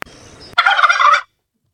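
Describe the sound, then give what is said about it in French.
A loud turkey gobble, used as the wrong-answer sound in a quiz about Sweden, bursts in after a brief click and low rumble, a rapid warbling rattle lasting under a second, then stops abruptly into silence. “Le principe est simple, si tu donnes une mauvaise réponse, ça donne ça”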